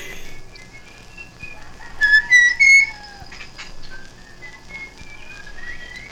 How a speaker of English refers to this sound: Oh, There's a lot of people whistling. or no, is it? No, I think it's birds repeating. Oh yeah, he's talking to birds.